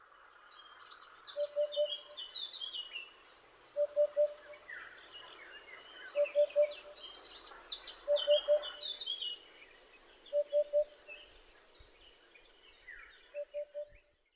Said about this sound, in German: Vögel im Wald. Ja, und vor allem ein besonderer Vogel im Wald, nämlich der Vogel des Jahres, der Wiedehopf.